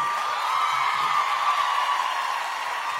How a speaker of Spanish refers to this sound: Quiero presentarles con un fuerte aplauso a Verónica Castro,